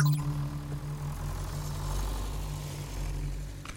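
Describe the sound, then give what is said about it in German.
A tractor engine runs steadily throughout, a continuous low, droning rumble with a constant hum, moderately loud, with no voices. “Er ist mit dem Trecker über Howie gefahren. Einmal, zweimal, immer wieder.”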